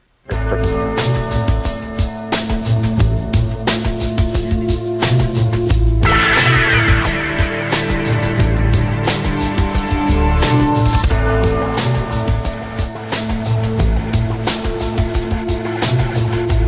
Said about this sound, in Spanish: Escuchamos la, la, banda sonora de esta película de Boxer, el boxeador